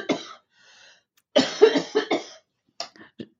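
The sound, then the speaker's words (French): A person coughs several times: one cough, a short pause, then a burst of harsh, rapid coughs, followed by two smaller coughs trailing off. “Je compatis parce que j'ai toussé pendant un mois et demi.”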